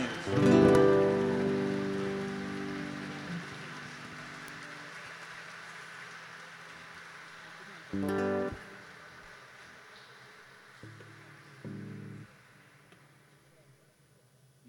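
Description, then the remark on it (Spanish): An audience applauds for the dancers, a steady crackle of clapping that runs throughout, starting just after a ringing musical chord and broken by a few short tonal bursts. “Se queda la postura y no hace nada para aplausos, para esos bailarines.”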